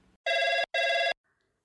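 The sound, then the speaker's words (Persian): A telephone rings twice, two loud, steady electronic bursts of about four-tenths of a second each with a short gap between, clear, followed by near silence, before an answering machine picks up on the Literary Clinic phone line. “با سلام شما با سامانی تلفنی کلینیک ادبی تماس گرفته اید.”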